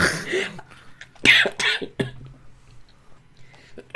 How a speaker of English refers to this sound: But yeah, oh fuck, made myself cough.